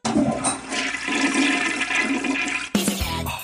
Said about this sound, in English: Pushing the toilet. Here's a cat. Meow. How did he learn how to flush the toilet? I don't know, but mm, he does not care if he's wasting water.